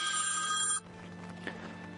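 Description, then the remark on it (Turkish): A telephone rings for an incoming live call on a broadcast, a bright, sustained electronic tone for under a second, then cuts off abruptly, leaving a quiet hum and a faint click. “Bu arada bir canlı yayınımız var.”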